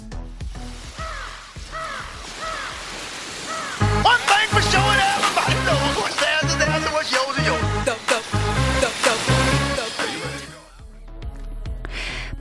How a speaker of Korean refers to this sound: 파도 소리에 끼룩 끼룩 하는 갈매기 소리도 들렸는데 조금 어려우시죠?